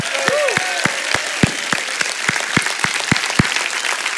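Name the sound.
audience clapping and shouting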